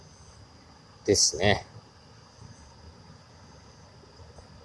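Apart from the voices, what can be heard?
babbling river stream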